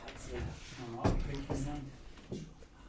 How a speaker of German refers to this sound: So, jetzt ist die Tür wieder zu, na gut.